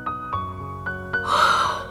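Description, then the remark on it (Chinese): A long, breathy yawn by Mama Bear in a children's story swells up in the second half, airy and drawn out. Steady background tones and a few soft taps come before it. “熊妈妈打了一个哈欠。”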